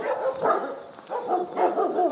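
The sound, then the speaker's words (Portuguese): Dogs bark in repeated bursts, several voices overlapping into a noisy chorus with brief pauses between volleys, and no one speaking over them. “cachorrada agora vai que vai.”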